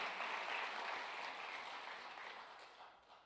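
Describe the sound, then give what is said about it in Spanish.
Congregation applause given to the Lord, a dense wash of many hands clapping together, steady and fairly loud, then slowly thinning and fading toward the end. No talking is heard. “Yo no sé cuántos es, le dan un aplauso fuerte al Señor.”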